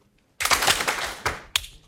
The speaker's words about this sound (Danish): og I skal lige have hænderne klar, så I bare kan svare med et hårdt og kontant klap. Det første spørgsmål. Hvor mange af jer har læst en krimi?